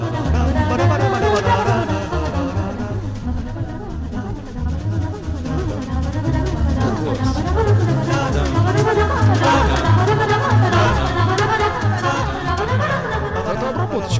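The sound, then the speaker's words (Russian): A modern arrangement of Bach's baroque classical music plays continuously, with dense layered parts over a steady pulsing bass line, full throughout. “Это современная обработка Баха.”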